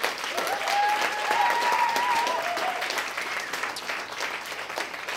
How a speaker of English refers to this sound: How about another round of applause for everybody on stage?